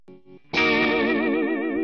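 A short burst of recorded music: two soft plucked notes, then a loud, sustained electric guitar chord with a wavering, chorus-like shimmer that rings out without any voices.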